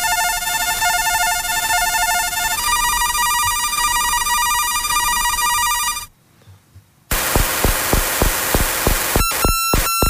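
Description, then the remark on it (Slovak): A VOR radio navigation beacon signal: steady, buzzing electronic tones in two stretches, a brief near-silent pause, then a loud, rapid run of rhythmic pulses. No voices. “Takže bude najprv zameriavací letiskový, potom bude ten meteorologický a potom bude ten VOR.”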